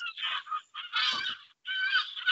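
Gulls call loudly by the water, three harsh, squawking bursts in quick succession with brief gaps between them, with no talking.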